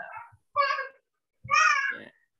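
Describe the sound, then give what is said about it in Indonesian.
A baby vocalizes in three short, high-pitched, whiny bursts, the last one longer and rising, with no adult talking over it. “Oke guys, kalau ada suara-suara bayi ya.”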